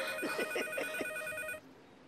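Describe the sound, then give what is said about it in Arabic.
A telephone rings with a bright, steady electronic tone, pulsing in quick regular bursts for about a second and a half before cutting off abruptly, leaving a quiet hum. “وانا ماشي جاي على التليفون”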